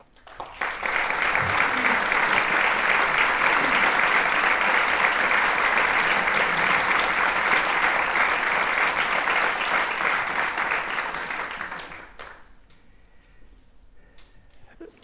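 Loud, sustained applause from an audience for actors Eva Rufo and David Boceta, who play Laurencia and Frondoso; dense clapping that swells quickly, holds steady for about eleven seconds, then fades out abruptly into near quiet.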